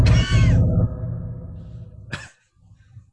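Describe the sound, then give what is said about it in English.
A deep, rumbling creature growl made from a processed donkey bray, with a harsh, breathy onset, sustained for about two seconds before a short rasping burst and a low trailing grumble; loud, no talking. “The original animal vocalization vocalization is from a donkey.”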